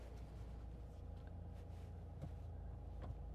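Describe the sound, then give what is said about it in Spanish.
A car engine idles and the car rolls out of a garage with a steady, low rumble that fills the garage, broken by a couple of faint clicks; no one speaks. “Sí, es que ahora claro, también en el garaje es el momento en que sale todo el mundo.”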